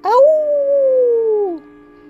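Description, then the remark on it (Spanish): A single long, wavering howl like a werewolf's, rising quickly and then sliding slowly downward for about a second and a half, loud, a human voice imitating it, howled with the head thrown back as a greeting. “Y sus excentricidades varias, como que cada vez que se encontraban se saludaban echando la cabeza hacia atrás y aullando como si fueran hombres lobos recién convertidos.”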